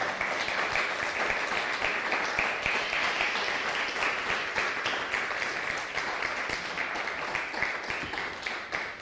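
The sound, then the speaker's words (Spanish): A crowd applauds the Almighty steadily for about nine seconds, a dense, even wash of many hands clapping at once with no voices standing out. “Dale un fuerte aplauso al Todopoderoso.”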